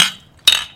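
Glasses clink together in a toast: a bright ringing clink, a second clink with a short shimmering ring, and a quick third tap at the end, fairly loud, no talking.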